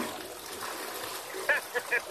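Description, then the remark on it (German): A toilet flushes with a steady rush of water and trickling, followed by a few short gurgling bursts toward the end. “in der letzten nochmal kurz die Spülung ah, angemacht.”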